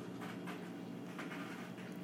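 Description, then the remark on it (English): Cats scratching on scratch pads in a house: a continuous, dry rasping scrape with faint rhythmic strokes, fairly quiet and heard alone without any talking. “that noise is my cats.”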